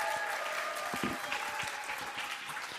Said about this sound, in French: Super, on applaudit bien fort